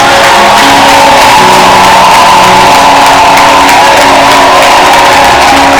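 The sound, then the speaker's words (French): A loud crowd cheers and shouts continuously, acclaiming Jesus rather than applauding: a dense roar of many voices with whoops and sustained held tones rising above it, no clapping standing out. “Acclame-le bien. Je n'ai pas dit d'applaudir. Acclame Jésus.”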